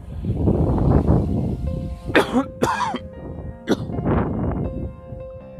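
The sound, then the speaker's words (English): A loud allergy coughing fit: several sharp, harsh coughs in quick succession with some throat clearing, set against low breathy rumbling noise and brief pauses between bursts. “cough attack. I have allergies, so I'm coughing a lot, so I apologize.”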